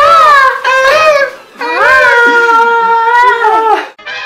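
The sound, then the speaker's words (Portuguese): A voice imitates a seagull with loud, high, wailing cries: two short calls, then a long wavering squawk that rises and falls, and a brief final call. “Tô com muita vontade de imitar uma gaivota.”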